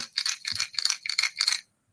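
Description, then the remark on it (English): The internal rattle of an old-school Vixen fishing lure shaken back and forth in quick rhythmic bursts, about six bright, clicking rattles in a row, fairly loud, then stopping into silence. “Compare that to like old school Vixen, right? Here's the Vixen.”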